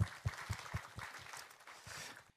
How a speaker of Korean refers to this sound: 네, 할렐루야 우리와 함께 하시는 하나님께 영광의 박수 올려드리도록 하겠습니다.